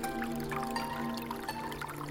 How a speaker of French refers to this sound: Là, regarde. Un ruisseau